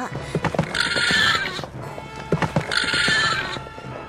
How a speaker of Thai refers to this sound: เวลาต่อมาลานั้นได้เริ่มรู้สึกหงุดหงิดกับสัมภาระที่ดับอึ้ง มันจึงได้แกล้งทำเป็นพยศ โดยการกระโดดหกหน้าหกหลังไปมา